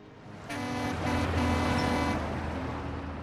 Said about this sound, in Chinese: 几辆大型货车按着喇叭从赞成的身边呼啸而过